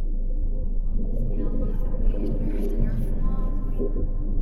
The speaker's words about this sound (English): There's a voice going in and out on a shortwave band, but I can still hear it the closer I get to the Hellmouth, even when the radio glitches.